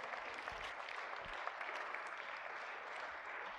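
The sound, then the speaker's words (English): A church audience gives the Lord a hand clap during a Sunday service, a dense, steady wash of hand clapping that holds at an even level for several seconds, with no voices rising above it. “Come on, can we give the Lord a hand clap?”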